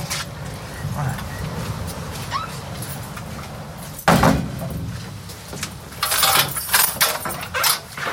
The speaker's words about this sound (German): Der Tür kommt zu.